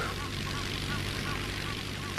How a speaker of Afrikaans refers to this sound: 'n Vliegtyg. Hardloop vir toe. Hardloop onder die bome uit.